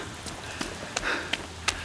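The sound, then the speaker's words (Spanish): Soft, steady warm rain hisses in the streets late on a dark, humid summer night, with a few sharper drops or drips landing every so often. Fairly quiet, with no voices. “La lluvia es cálida.”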